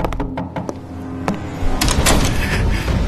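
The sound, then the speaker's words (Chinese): A door being opened: a few sharp, knock-like clicks and taps, then a louder rattling, scraping clatter as it swings open. No one speaks. “小美，快点，快开门！”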